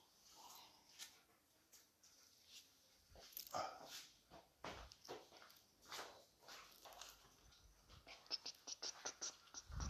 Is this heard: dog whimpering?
yes